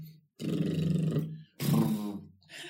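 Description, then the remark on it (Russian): Two sustained lip trills imitating a horse's snort, done as a facial muscle warm-up exercise, each about a second long, with a low voiced hum and fast fluttering buzz. A short breathy sound follows. “Простое первое упражнение – это вот лошадка.”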